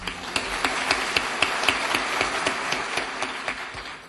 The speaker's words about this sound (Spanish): Muchas gracias y por favor un aplauso para todos nuestros compañeros.